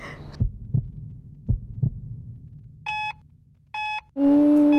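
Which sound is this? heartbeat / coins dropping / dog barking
heartbeat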